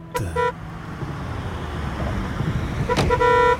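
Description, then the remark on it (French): Two short car horn blasts, one at the start and one near the end, sound over a steady low engine rumble of a convertible setting off, with no voices. “Voilà, on sort la décapotable, on attache nos ceintures et nos tucs.”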